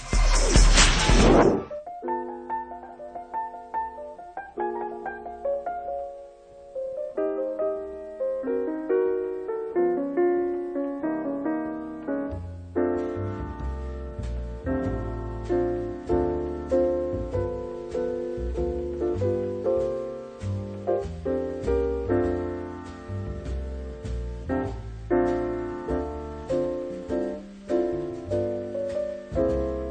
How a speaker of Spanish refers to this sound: Bien, vamos a hacer una breve pausa musical